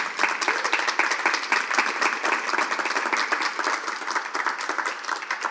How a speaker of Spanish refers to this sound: Dale un aplauso al Señor.